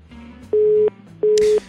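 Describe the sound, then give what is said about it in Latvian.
A telephone busy signal after a call's line dropped: two loud, steady mid-pitched beeps, each about a third of a second, pulsing on and off evenly over a faint low background hum. “Jā, diemžēl pārtrūka līnija”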